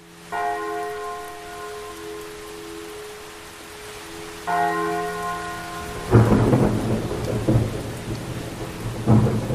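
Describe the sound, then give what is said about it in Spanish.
A church bell tolls twice at night, slow and ringing, each strike humming as it fades, while steady rain falls and a low rumble of thunder swells in near the end. “En la medianoche y a las 2 de la madrugada se escuchaba el sonido de la campana.”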